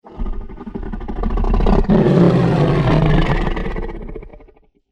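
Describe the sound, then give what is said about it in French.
A big cat's roar slowed down fivefold into a deep, drawn-out rumbling growl, loud, swelling over a few seconds and then fading out, with no talking. “Ralentissons-le cinq fois.”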